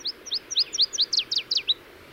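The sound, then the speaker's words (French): A Louisiana waterthrush sings at a survey site, a quick run of bright, high, downslurred whistles, about a dozen notes that grow louder and tumble together before ending abruptly, alone over a soft low background hum. “Et durant trois années consécutives, on est en mesure de confirmer la présence d'une paruline des ruisseaux.”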